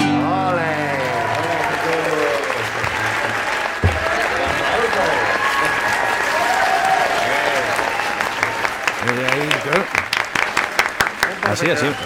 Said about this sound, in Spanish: Eh, además, en, aplausos en directo, muy bonito, muy bonito.